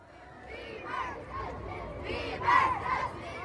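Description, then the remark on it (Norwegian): A large crowd of several hundred teenage girls outside a hotel in central Oslo, Norway, in the evening, screaming together while hoping to glimpse a teen idol: a dense, high-pitched wall of shrieks that swells and peaks in piercing bursts, with no single voice standing out. “Det var én person flere hundre tenåringsjenter utenfor et hotell i Oslo sentrum vil ha et lite glimt av i går kveld.”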